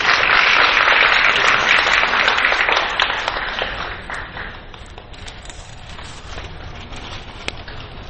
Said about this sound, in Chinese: 个掌声鼓励啊！